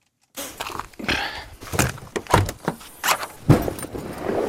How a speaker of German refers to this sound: belädt gerade sein Auto mit seinen Instrumenten.